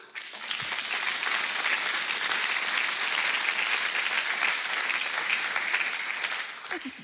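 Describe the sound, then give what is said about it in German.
An audience bursts into sustained applause for God, a dense, even wash of many hands clapping at steady loudness for several seconds before easing off slightly at the end. “Das ist doch Grund genug, einen Applaus mal Gott zu geben, oder?”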